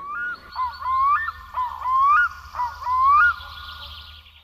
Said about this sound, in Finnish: Aurinko lämmittää penkkejä, sepelkyyhky huhuilee innokkaasti taustalla ja tuuli havisuttaa läheisten puiden tuoreita lehtiä.